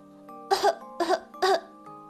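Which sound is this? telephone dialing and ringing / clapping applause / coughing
coughing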